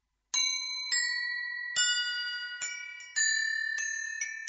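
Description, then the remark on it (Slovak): Small Christmas bells ring out clearly on their own, struck about seven times in an uneven rhythm, each bright metallic chime sustaining and overlapping the next. The ringing is steady. “Kým vianočný stromček a svetielka dávajú Vianociam obraz, kapustnica dáva Vianociam bôňu, zvončeky dávajú Vianociam zvuk.”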